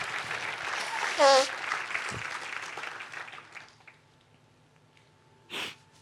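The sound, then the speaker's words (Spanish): A crowd, called on to give a loud round of applause for God, bursts into steady, loud applause with a brief cheer rising through it, then the clapping thins and fades away within a few seconds, leaving quiet broken by one short breathy sound. “Dele un fuerte aplauso por eso.”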